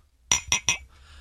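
Three quick, bright clinks of something tapping a glass, evenly spaced and ringing with a high, resonant tone that fades briefly after each strike. No one speaks.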